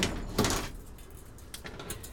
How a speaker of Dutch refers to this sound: En vervolgens ga ik naar de kas in dit geval. Want ik wil direct zonlicht wil ik vermijden moet ik even de deur van de kas openmaken.